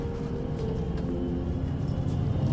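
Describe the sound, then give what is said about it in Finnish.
Steady low engine rumble inside a moving bus, with a constant droning hum and faint rattles and no voices, as a passenger gets up from a seat and walks to the back of the bus. “Pistin mikin kaulaan ja odotin hetken aikaa, että sydän lakkas hakkaamasta ja mä nousin paikaltani ja kävelen sinne bussin perään.”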